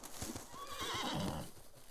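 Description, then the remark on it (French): Horses in the distance, in woods at night: a horse whinnies with a wavering, drawn-out neigh while hooves clop steadily beneath it, the trotting beats continuing before and after the call. “Entendez-vous la vie Entendez-vous des sabots dans le lointain. Des chevaux Mais montés par qui Quel humain s'aventurerait dans ces bois en cette nuit sacrée”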